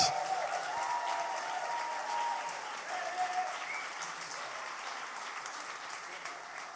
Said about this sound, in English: So why don't you put your hands together